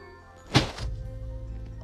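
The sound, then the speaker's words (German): A video game Brawl Box opening effect: one sudden thunking burst, fairly loud, followed by a low, steady rumble that lingers to the end, with no voices. “Okay, die Box hat jetzt einfach geöffnet.”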